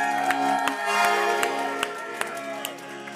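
A church audience claps for the Lord in a steady, evenly spaced beat, roughly two claps a second. Sustained organ-like chords play underneath, and no one speaks.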